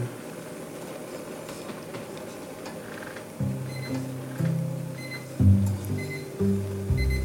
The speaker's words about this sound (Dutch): En dit is dus het geluid van het sidderplaatje hier.